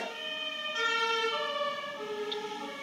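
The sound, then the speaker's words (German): An emergency vehicle siren wails steadily, its rising and falling tones sustained throughout, moderately loud with a faint rumble of road traffic beneath. No one speaks. “Ja, so wie man es gerade im Hintergrund gehört hat, ne? sehr, sehr oft mit Blaulicht versehen”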